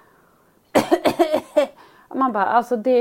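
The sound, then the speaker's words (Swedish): A voice imitates a child pretending to sleep, with about five quick, rhythmic, cough-like voiced fake-snoring bursts, loud, followed by a person starting to talk. “Men det är ju ändå det här att han sitter och först ska han låtsas sova och hans nya låtsas sova låter så här.”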